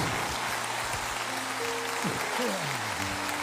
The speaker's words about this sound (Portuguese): Vamos dar um glória e um aplauso a Ele, Ele merece.